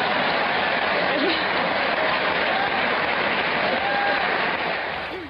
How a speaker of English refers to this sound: They're applauding for her being naked.